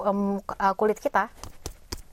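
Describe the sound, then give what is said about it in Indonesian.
A woman speaks briefly, then an exfoliating toner pad is rubbed across the face, starting at the cheeks and moving to the forehead, in a few soft, scratchy swipes that come in quick, uneven strokes. “suaranya kayak gitu suaranya seperti ini suaranya seperti ini teman-teman jadi aku bakalan pakai ini di muka aku biasanya tinggal difusap-fusapkan di bagian muka kita hmm, dimulai dan, dari pipi ini.”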